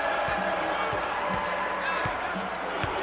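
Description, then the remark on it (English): A large arena crowd on its feet roars and cheers steadily throughout, a dense wash of voices, while a basketball bounces in a regular rhythm underneath, each thud low and distinct, as the final seconds run out on a Middle Tennessee home win over Old Dominion, 63–48. “Crowd comes to its feet.”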